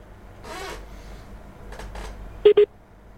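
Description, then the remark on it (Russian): An internet (IP telephony) phone call breaking up: faint, garbled bursts of distorted audio, then two quick electronic beeps close together, as the connection drops out. “IP-телефония а, а, у нас, что ли, Ну Оборвалась ладно, связь.”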